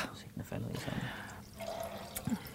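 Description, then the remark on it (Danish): Elderflower cordial and a little Danish sparkling water being poured into a glass, a steady splashing and gurgle lasting a couple of seconds, with soft voices murmuring in the background. “Og så skal vi have hyldeblomst. Yeah. En lille smule dansk vand.”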